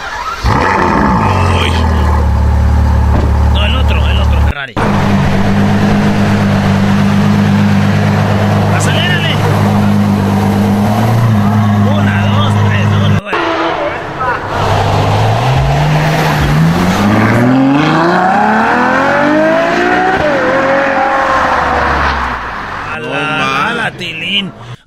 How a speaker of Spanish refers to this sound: sonido de Ferrari, güey, por favor.